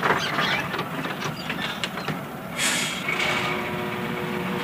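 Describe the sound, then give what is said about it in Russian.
Mail train number 658 from Moscow rumbles into a station and arrives on track one for a one-minute stop. Its steady mechanical roar is joined partway through by a sharp hiss of air brakes, with no voices. “Почтовый поезд номер 658 Москва прибывает на первый путь.”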